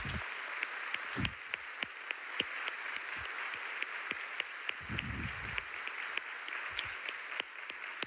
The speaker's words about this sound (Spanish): ¿Cuántos quieren darle un aplauso bien fuerte al Señor?